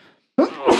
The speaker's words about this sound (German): Ähm, ich fürchte, da du gerade gesprochen hast, werden wir das auch nicht rauskriegen. äh, das Niesen. Das äh, tut mir sehr, sehr leid.